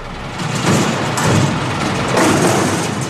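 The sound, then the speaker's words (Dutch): A diesel garbage truck engine rumbles steadily for a few seconds, a loud, rough drone with gritty noise on top that swells slightly in waves, with no one speaking. “Als je heel goed luistert, is dat de vuilniswagen. Dieseltje.”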